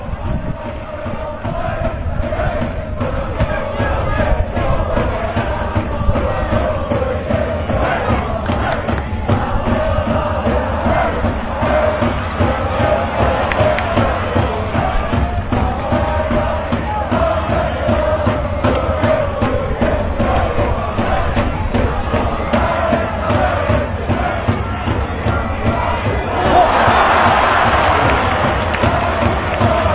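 Japanese football supporters chant together in a stadium in Japan, a loud, dense and continuous mass of voices with a steady rhythmic pulse that swells into a brighter roar near the end.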